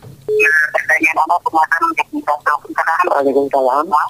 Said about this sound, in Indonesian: Uh, volume volume suara bisa dikecilkan? Volume suara kami, suara televisi atau radio bisa dikecilkan? Biar suara Anda bisa lebih jelas kami tangkap di sini.